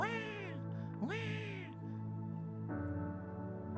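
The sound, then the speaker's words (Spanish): A baby, the speaker's youngest daughter, cries at home in loud wails: two sharp rising-and-falling cries followed by a longer, steadier sob, with no talking around it. “¿cómo sabes que … está llorando?”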